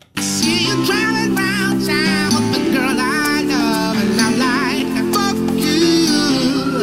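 An upbeat pop song plays loudly and steadily, with a sung lead vocal riding over bouncy bass, piano chords and a driving beat throughout.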